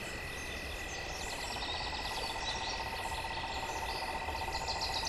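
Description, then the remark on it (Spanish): Dense, overlapping bird chirps fill a steady jungle soundscape, with many calls repeating at once over a constant high insect drone and low background rumble, with no voices. “Se podían ver iguanas, caimanes, serpientes y muchos pájaros.”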